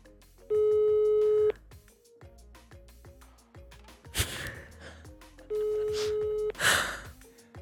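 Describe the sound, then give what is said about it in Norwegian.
A telephone ringback tone from a call made to wake someone sounds twice, each a steady electronic buzz about a second long with a long pause between, alongside sharp breathy gasps and quiet background rustling. “Hun våkner av et anrop.”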